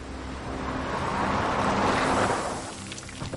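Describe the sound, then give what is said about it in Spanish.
A car engine grows louder as the vehicle arrives in front of a house, holds a steady rumble for a couple of seconds, then winds down and goes quiet as the car stops. “Detiene el coche y se baja.”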